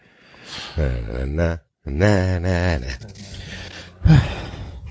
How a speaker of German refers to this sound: hier schnaufst du schon, oder was?